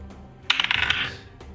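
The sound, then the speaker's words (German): Dice are rolled for an attack with a thrown dagger, clattering across a hard table in a quick rattling burst of several small clicks and settling after about half a second. The roll is fairly loud, with no talking. “ganz normal würfeln und dann ist plus 5 auf Rüstungsklasse.”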